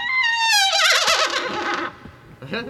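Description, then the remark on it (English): A loud horse whinny: a high, quavering neigh that slides downward over about two seconds, then trails off into a brief, softer snort-like sound. “Look at the horse.”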